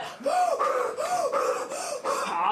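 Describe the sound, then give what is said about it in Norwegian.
Loud heavy breathing in quick, steady cycles, each strained inhale and exhale rasping and partly voiced, as a man who had lung cancer surgery trains hard during an exercise test at Ullevål hospital. “Nå jobber du på. Inn og ut. Å, pust og pust.”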